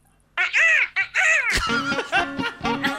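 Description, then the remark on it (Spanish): A person imitates a crow, giving two loud, harsh nasal caws, followed by a burst of laughter from people. “Ok, ¿cómo hace el cuervo?”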